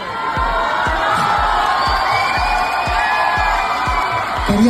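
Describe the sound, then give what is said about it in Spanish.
A large concert crowd screams and cheers continuously as the band's singer decapitates and tears apart a plush Simi doll, throwing the pieces to them; a dense wall of voices with high shrieks, while a steady pounding beat thumps underneath at a regular pace. “decapitó el muñeco para después destrozarlo frente al público, que gritaba ante el acto que se tornó grotesco cuando con la boca el cantante continuó destrozando el simi y lanzando los pedazos al público.”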